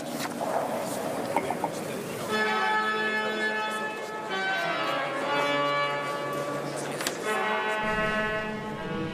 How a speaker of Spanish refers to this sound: Con esto está concluyendo ya esta celebración. Escuchamos al órgano.